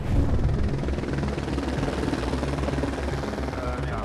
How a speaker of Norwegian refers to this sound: Men heldigvis er det ikke bare redningshelikoptre som sirkler over dem. Også politiets helikopter, som er utstyrt med varmesøkende kamera, henger over skredområdet.